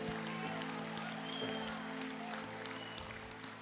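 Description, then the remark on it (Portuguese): An audience claps steadily and continuously in praise of God, a dense wash of many hands over a low sustained hum, with no clear voices standing out. “Aplaude Ele, aplaude, Santo.”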